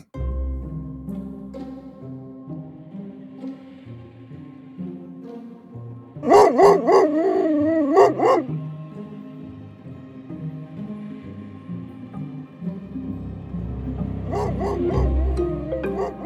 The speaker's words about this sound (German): es hat tönt, der Hund hat gekläfft